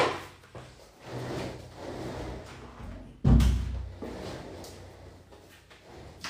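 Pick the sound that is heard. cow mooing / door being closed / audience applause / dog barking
door being closed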